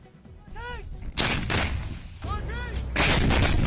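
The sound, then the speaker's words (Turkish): An Azerbaijani army artillery battery carrying out a fire mission in Karabakh: several loud, booming blasts with rumbling tails, each preceded by a brief wavering, tonal call, over a constant low roar. “Halihazırda bataryamız ateş tapşırığı yerine getiriyor.”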